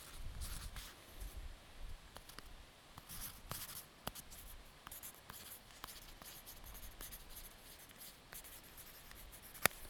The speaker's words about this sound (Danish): Og der er en lille bog i. Fordi vi skal jo skrive, at vi har været her. Hvornår har de sidste været her? De sidste har været her den 30. i 7. 2018. Og nu skriver jeg her, at vi er her.